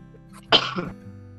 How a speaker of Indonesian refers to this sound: batuk corona lu anjing, Mbak. Jangan deket-deket ah